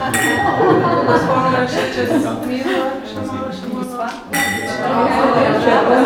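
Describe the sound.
Several wine glasses clink together in a quick toast, bright ringing chimes over a lively background of voices and laughter, during a tasting of Sauvignon wine.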